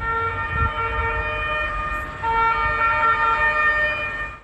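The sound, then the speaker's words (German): A fire engine siren of the Rudolfsheim fire brigade, turning out to a fire in the workshop hall of Vienna's Westbahnhof, wails steadily and loudly, a sustained multi-tone blare with a low rumble of engine and traffic beneath it; no one speaks. “Die Rudolfsheimer Feuerwehr rückt aus.”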